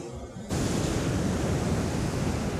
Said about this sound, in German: Oder hier das Meeresrauschen.